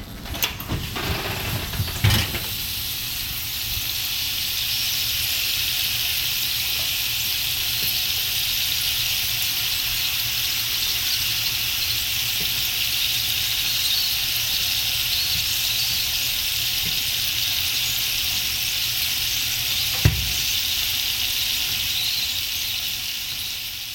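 Cut-up potatoes sizzling as they bake in an oven, a steady, bright hiss that runs unbroken throughout, with a couple of brief pops near the start and toward the end.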